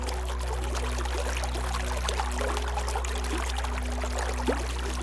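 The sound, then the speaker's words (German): Water runs steadily over pebbles and around rocks in a continuous babble, with small splashes and bright trickling notes above a low, constant rush. No voices. “Die Bänder aus flüssigem Silber tanzen über Kieselsteine und um Felsen herum und schaffen eine Symbiose aus klimpernden und klickernden Tönen, die deine Sinne kitzeln und sie beruhigen.”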